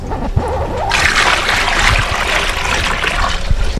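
Wet sloshing and splashing as shredded paper is stirred and mixed into water in a tub, a steady churning swish with small drips and splatters, broad and fairly loud, with no talking.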